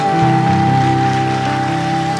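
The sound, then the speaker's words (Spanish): A church audience applauds, a dense, steady wash of many hands clapping at full volume, with held keyboard or organ notes sustaining underneath throughout. “Dale ese aplauso, iglesia.”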